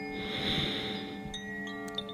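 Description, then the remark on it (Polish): A slow, deep breath drawn in through the nose during a short guided breathing exercise, airy, lasting over a second before fading, with a soft sustained musical drone underneath. “Pamiętaj, by w trakcie oddychać nosem, wdech nosem”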